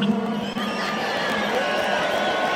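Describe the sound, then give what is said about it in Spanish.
A large crowd whistles the Mexican chiflido together in an attempt to break its record, a dense, steady wash of shrill whistling mixed with cheering and shouts that stays loud and unbroken throughout. “Vamos a romper el récord de del chiflido mexicano que aquí no nos hacemos la FIFA.”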